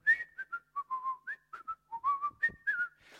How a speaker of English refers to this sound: and all of a sudden Jesus walks by, okay? So I don't know what he's doing, kind of whistling.